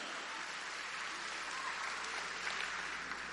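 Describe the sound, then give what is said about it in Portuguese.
An audience applauds in a dense, steady wash of many hands clapping, crackling and even in loudness throughout, with no voices standing out. “Quem é que está aplaudindo?”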